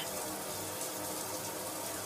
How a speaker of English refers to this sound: You are pouring more than required. See, the excess water is coming out of the container.